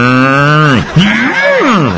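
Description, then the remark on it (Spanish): A person imitates a cow's moo: a long, low, sustained voiced 'moo' that slides in pitch, followed by a shorter wavering vocal moo, loud and without other talk. “Me gusta mucho que, que le hagas como vaca.”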